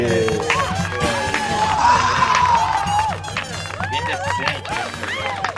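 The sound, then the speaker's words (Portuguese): A crowd applauds and cheers loudly and without pause for about five seconds, welcoming stand-up comedian Rogério Morgado, with excited shouts and whoops rising and falling over a dense wash of clapping and babble. “Uma salva de palmas.”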